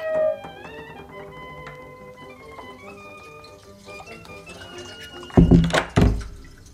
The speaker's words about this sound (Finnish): Kulkukoiran luut kiskottiin pois kaivoa tukkimasta ja sen solina elpyi hiljalleen. Vähitellen uskalsimme jo maistaa sen entiselleen kirkastunutta vettä.